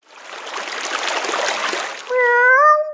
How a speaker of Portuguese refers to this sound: Corre muita água nesse rio.